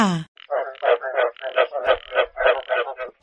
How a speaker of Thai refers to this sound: เสียงนี้เป็นเสียงของแขกรับเชิญของเราก็คือสัตว์ตัวเล็กๆ ที่มีนามว่ากบกบน้อยตัวนี้ไม่ธรรมดานะคะน้องๆ เพราะว่าเขาเป็นกบที่อาศัยอยู่ในป่าอเมซอนค่ะ ที่ป่าแห่งนี้เรียกกบชนิดนี้ว่า กบลูกศรพิษ